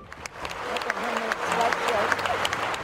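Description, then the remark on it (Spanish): A large crowd at the United States Congress in Washington gives Ukrainian President Volodymyr Zelensky a standing ovation after his speech: dense sustained clapping that swells slightly and holds steady, with scattered voices and cheers rising through the applause. “Ovación de pie para Volodymyr Zelensky en el Congreso de Estados Unidos.”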